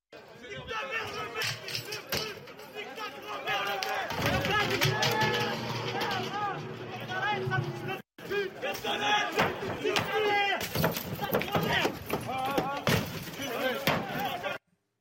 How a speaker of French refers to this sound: Sur une vidéo, on voit l'élu s'approcher de la voiture en feu sous les insultes des émeutiers. Et un individu est même monté sur le capot du véhicule.